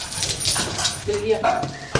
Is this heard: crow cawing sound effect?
no